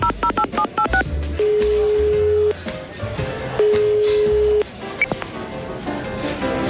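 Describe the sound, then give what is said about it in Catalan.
A quick burst of about eight electronic telephone keypad beeps as a number is dialed, followed by two long, steady ringback tones with a pause between them, over faint background noise. “Passa'm el telèfon, que em sembla que el Canut deu... el tenim per l'Empordà. Truco.”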